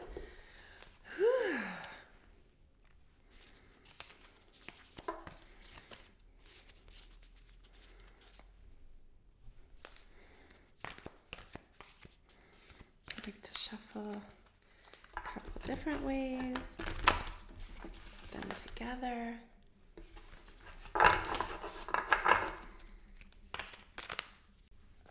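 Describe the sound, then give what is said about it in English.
Papery riffling and soft slaps of a card deck being shuffled for a reading, in several short bursts over about twenty seconds, with a few quiet breaths and murmured sounds in between. “And of course, I have my card deck. We are going to get these out, we are going to shuffle them up.”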